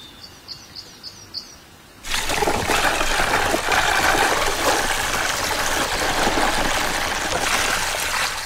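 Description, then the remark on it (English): A few soft, quick bird chirps in near quiet, then a sudden loud, steady rush of liquid cement pouring down tubes into an underground ant nest, continuing without a break to the end; 10 tons of cement were poured over three days. “For three days they kept pouring, until 10 tons of cement had disappeared down the tubes.”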